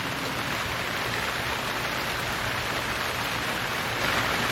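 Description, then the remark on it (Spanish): Heavy rain pours down in a steady, dense, loud hiss, with no pauses and no voices. “mientras la lluvia fluye a lo largo de toda la secuencia hasta inundar de aguas negras el hogar de esa familia”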